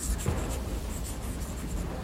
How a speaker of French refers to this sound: elle sort stylo et carnet et esquisse un croquis.